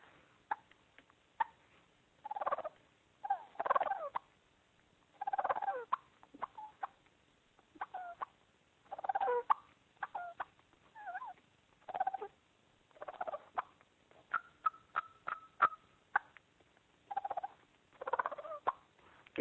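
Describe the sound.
Turkey sounds made on a mouth call: a steady string of short, soft clucks mixed with brief purring yelps, spaced irregularly over about twenty seconds with no talking.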